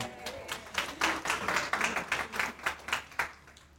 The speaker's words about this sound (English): Round of applause